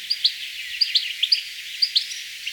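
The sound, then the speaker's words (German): A goldfinch giving its contact call in a quick series of bright, high twittering notes, with short bursts and trills repeating irregularly over a couple of seconds, clear and alone without any talking. “Und das ist so ein bisschen dem lautmalerischen Lockruf des Vogels entnommen.”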